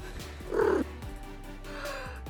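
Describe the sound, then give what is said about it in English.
A cat lets out one short meow near the start, with a low, steady purr continuing underneath throughout. “Kitty! And she starts rubbing her whole face on him, and he looks at you in complete betrayal.”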